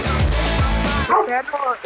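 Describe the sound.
A dog barks in a quick series of short, high, yappy barks, demanding food at its feeding time, following a stretch of low voices and background noise.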